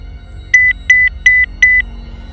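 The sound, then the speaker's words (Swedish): A phone message notification beep from a phone lying on the floor: four quick, bright electronic double-tones repeating in an even rhythm, clear over a faint low background hum, with no talking. “Jag lyfte tyst telefonen från golvet, låste upp den och förberedde mig att se ett meddelande från det okända numret, vilket jag också gjorde.”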